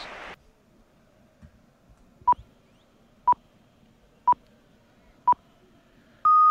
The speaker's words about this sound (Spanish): Suenan las señales horarias.